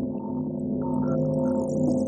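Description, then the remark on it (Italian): A bell rings in the distance, its resonant, humming tone sustained and fairly steady throughout, heard alone without any voices. “come questa campana che suona lontano. Noi la sentiamo suonare.”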